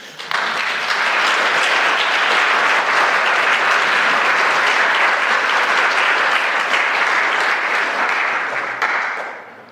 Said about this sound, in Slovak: Takže ďakujeme deťom aj pedagógom z Nárnie za ich službu. Bolo to perfektné a si myslím, že môžeme ešte zatleskať.